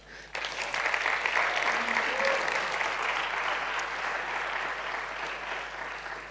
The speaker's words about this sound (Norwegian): Dere kan godt få en vidunderlig applaus.